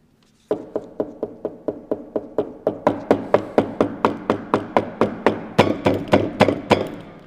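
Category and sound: impact, repeated knocking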